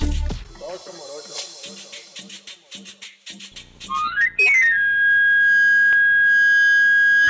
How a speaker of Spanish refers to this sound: Al empezar la tarde, entre las calles de la ciudad aún suele escucharse el agudo sonido del afilador. Ese silbido inconfundible es producido por un camarillo, una flauta de madera de origen medieval que basta como anuncio sobre su servicio